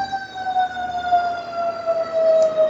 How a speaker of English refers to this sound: You got a fire truck. That's good sound.